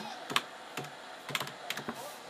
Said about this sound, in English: I'd be faster at typing if I knew how to spell, but I'm still fast at typing.